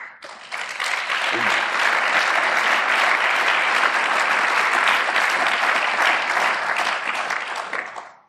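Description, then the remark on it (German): Sustained audience applause greeting a security-advice segment, a dense, steady wash of clapping that rises quickly, holds at full strength for several seconds, then fades out at the end. “Ein Sicherheitshinweis mit Applaus, das ist auch eine Premiere.”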